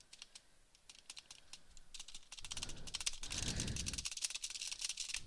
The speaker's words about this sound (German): Ich spiele mal mit der. Ich spiele mit der Laptop-Tastatur. Mal sehen, wie das läuft.